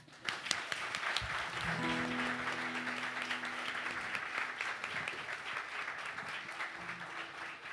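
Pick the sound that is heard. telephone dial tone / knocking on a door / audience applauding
audience applauding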